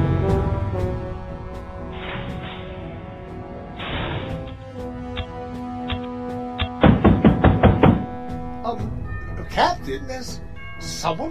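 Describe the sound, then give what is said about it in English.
A rapid run of about six or seven sharp knocks on a door rings out over a steady droning musical background, followed by a few scattered clatters. “knocking on the door.”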